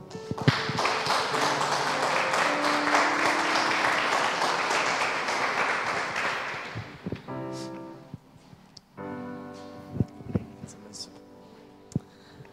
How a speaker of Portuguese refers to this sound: Se você puder, aplauda o Senhor